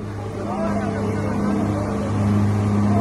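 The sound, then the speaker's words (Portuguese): A heavy Army truck engine drones loudly and steadily as it pushes through floodwater, rescuing people stranded in the water, with a constant wash of churning water and indistinct voices in the background. “Caminhão do Exército fazendo resgate do pessoal que ficaram ilhado lá no meio da água descendo.”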